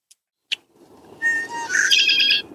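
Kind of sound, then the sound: bird, red-winged blackbird song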